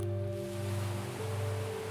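Soft, steady wash of ocean waves blended with low, sustained ambient drone tones, all quiet and continuous with no voices.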